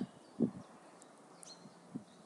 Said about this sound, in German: Ich sitze jetzt hier gerade auf einem Baumstamm im Wald. Vielleicht hörst der Wind pfeifen, die Vögel pfeifen,